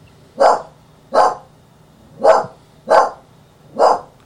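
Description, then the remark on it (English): A big dog barks five times at something at the front door, in a steady, slightly uneven rhythm, each bark loud and full, with brief quiet gaps between them and no talking. “No more barking.”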